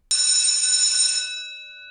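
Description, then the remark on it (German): A school bell rings once with a sudden, bright metallic strike, its high shimmering tone holding for about a second before fading out. No one speaks. “Es klingelt gleich.”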